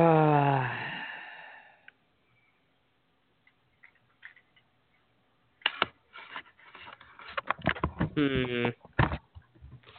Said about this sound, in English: Sorry about all the noise. I'm moving my computer.